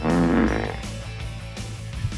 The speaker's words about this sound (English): Whew, farts are funny.